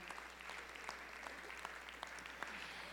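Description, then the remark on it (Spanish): An audience applauds, many hands clapping in a dense, steady patter that holds evenly for the whole stretch, with a few sharper individual claps poking through. No one speaks over it. “Denle un aplauso, el Señor es bueno, hermano.”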